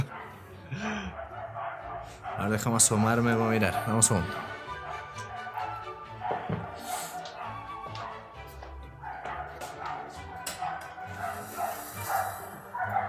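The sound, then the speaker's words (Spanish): An angry dog barks repeatedly outside in loud, harmonic bursts, with yips and whimpering mixed in, while a person speaks over the commotion. “Dame un segundo que hay un perro rabioso afuera.”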